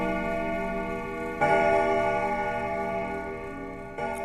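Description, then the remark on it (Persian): A house clock chimes 'ding ding' with ringing, sustained tones, one strike building on another at about one and a half seconds and a fresh strike near the end, each note lingering and overlapping, heard while the front door is being locked. No one speaks. “موقعی که داشتم در خونه رو قفل می کردم دوباره صدای دینگ دینگ ساعت رو شنیدم”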